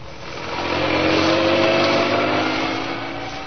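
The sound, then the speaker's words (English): A police car engine roars steadily as it careens out of the gates of Scotland Yard and speeds out of London toward Essex, swelling to a loud peak and then easing slightly, a dense continuous motor drone with no voices. “Inspector Manson and Sergeant Wright left Scotland Yard, careening out of the gates on two wheels and roared out of London and into Essex”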